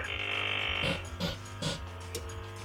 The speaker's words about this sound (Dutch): Wat hoor ik naar nou brommen daar? Oh, dat is de koffiemachine.